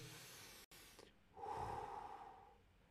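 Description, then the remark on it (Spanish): A single long, deep breath drawn in through the nose during a breathing exercise, a loud airy rush that swells and then slowly fades, with no talking. “Poner la concentración en el aquí y ahora a través de”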